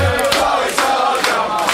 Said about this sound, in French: Le Paris Taxi chavire de bonheur, les chants redoublent de plus belle.